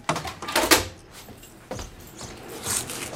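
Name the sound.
door being opened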